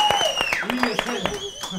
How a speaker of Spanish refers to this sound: ¡Que aplausos para ella!